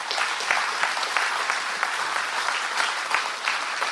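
A crowd claps steadily in praise to God in a dense wash of applause, many overlapping hand claps forming a continuous crackle with a few sharper accents, no voices standing out.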